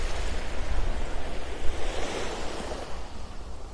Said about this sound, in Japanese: えー、っと葉山の神奈川県の葉山の階段を歩いています。3分間だけ波音を流そうと思います